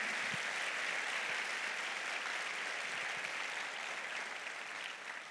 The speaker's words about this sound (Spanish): ¿Qué tal se le da un aplauso al Señor bien fuerte?